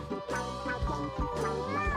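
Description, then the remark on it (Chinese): An orange cat meows outside the window several times in a row, drawn-out, tonal cries that rise and fall in pitch, fairly loud and steady across two seconds, with no talking over them. “这时候呢，窗外传来了一只猫咪的叫声”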